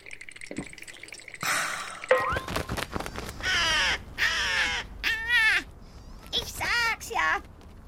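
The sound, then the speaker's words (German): A crow caws several times in quick succession, harsh and loud, each call rising and falling, after a short burst of clattering noise at the start. “Macht zur Krähe, wenn einem mal der Spruch nicht einfällt.”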